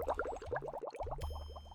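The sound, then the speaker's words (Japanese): An object is sunk to the seabed, with a steady stream of bubbling and gurgling, quick rising bubble pops repeating throughout, moderately loud over a low watery rumble. “海底に沈めよう。はい。海底に沈めます。”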